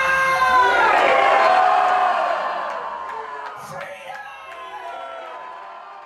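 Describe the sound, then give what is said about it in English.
A large crowd at a rally roars with shouts of "Freedom" and cheers, loudest in the first two seconds, then gradually fading into a scattered murmur of voices and occasional whoops. “Stand on your feet right now and I want you to shout one thing with me.”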